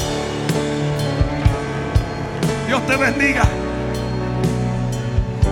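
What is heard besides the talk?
audience applause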